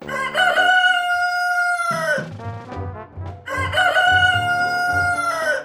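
A rooster crows twice as a morning wake-up call for villagers, each a long, loud, strained cock-a-doodle-doo that holds a high note before dropping off, with short clucking in the brief pause between the crows.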